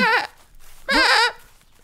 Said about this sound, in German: Oh, die Ziegen!